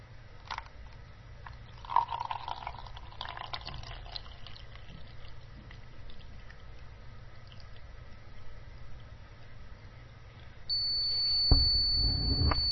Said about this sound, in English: It beeps and then stops but it's beat and it's now half an inch from the bottom of the cup, so not a great deal in. If we continue to pour,